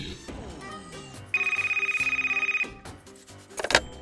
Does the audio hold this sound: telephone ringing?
yes